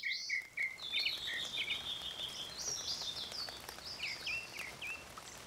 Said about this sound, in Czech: Moje číslo tři není hudba, ale zvuky přírody. No, tak se asi shodneme na čísle tři. Aha, specificky mě strašně uklidňují zvuky ptáků a déšť.